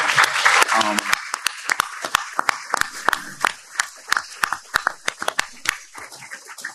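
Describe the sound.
An audience applauds, starting as a dense burst of clapping with a few murmuring voices, then thinning to scattered, crisp individual claps that taper off by the end.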